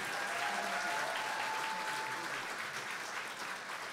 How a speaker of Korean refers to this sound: 다시 한번 뜨거운 박수 부탁드립니다.